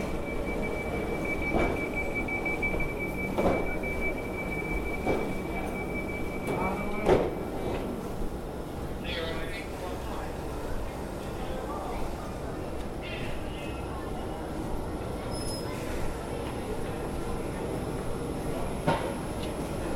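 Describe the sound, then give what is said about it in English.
A train rumbles steadily along the rails with a continuous low roar, a thin high whine in the opening seconds, and occasional clunks, while muffled voices sound faintly underneath. “Please mind the gap between the train and the platform edge.”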